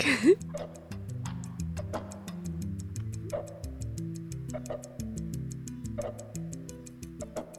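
A clock ticks steadily and quickly, several crisp ticks per second, layered over a sustained, low musical drone with shifting tones; there is no talking.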